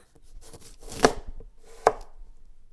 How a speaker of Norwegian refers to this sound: Så det første jeg gjør, er å kutte opp limen.